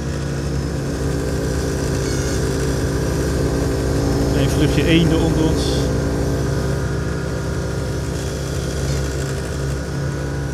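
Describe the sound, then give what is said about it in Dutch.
A steady, loud aircraft engine drone hums throughout at a constant low pitch during a measurement flight flying transect lines near Meppel, with a voice speaking briefly over it. “Met het vliegtuig zijn we daar natuurlijk in de overwenk overheen.”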